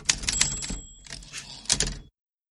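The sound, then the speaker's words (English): Rapid clattering typewriter keystrokes in quick bursts, crisp mechanical clicks with faint bell-like tones, played alone before cutting off abruptly. “we're ready for that typewriter again.”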